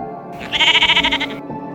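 A single loud sheep bleat, a wavering, pulsing baa lasting about a second, heard on its own with no talking.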